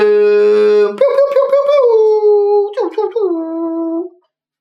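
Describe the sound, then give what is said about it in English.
A voice imitates an air horn with a loud, sustained, buzzy blare lasting about four seconds. The pitch wobbles and bends, dips briefly near the end, then holds before cutting off. “That was an air horn, in case you guys were wondering.”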